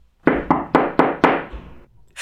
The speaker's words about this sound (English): Feeling very excited, she knocked on the door.